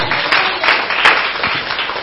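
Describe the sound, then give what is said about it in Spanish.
An audience applauding the Lord together, a dense, steady wash of many hands clapping with a few louder surges, no voices standing out over it. “siempre te agradeceremos Señor, aunque den aplauso al Señor, aleluya.”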